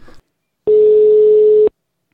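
A single steady telephone ringback tone sounds for about a second, clear and loud, as a phone call is placed to redo a recording, after a brief faint murmur at the start; no one speaks over it.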